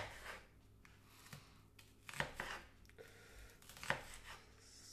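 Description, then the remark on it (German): A knife chops through broccoli on a cutting board, cutting away the stalk, in a handful of irregular, crisp cuts, two of them sharper and louder, with no one talking. “So, den Strunk weg. Eincutten.”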